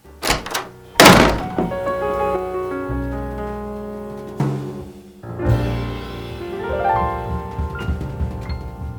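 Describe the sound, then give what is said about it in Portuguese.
A woman leaving a house slams the door shut with a loud, heavy thud, preceded by a couple of quicker knocks. Sustained tonal music follows and continues underneath, with another dull bump partway through. “deixou a casa, explodindo a porta contra o portal em uma performance digna de um astro de filme.”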